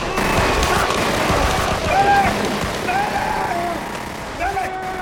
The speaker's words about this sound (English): Maintain suppressive fire!